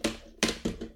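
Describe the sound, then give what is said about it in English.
A child bangs an object on a tabletop four times in quick, uneven succession, each knock sharp and fairly loud with a short ringing decay, and no voices. “he decided to bang something on the table across the table from me, and it's this.”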